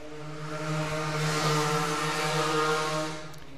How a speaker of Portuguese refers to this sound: e perceber que esse cara precisa de um escapamento novo.